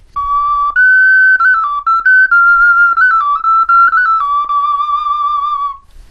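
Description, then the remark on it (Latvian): A small clay bird whistle plays a bright, pure tone that hops between a few nearby pitches in short steps and trills, loud and steady for about six seconds with no talking. “Piemēram, jums ir mālas vilpaunieki.”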